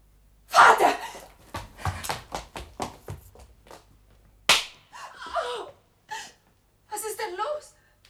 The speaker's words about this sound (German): Von hier aus sah es aus wie eine Ohrfeige.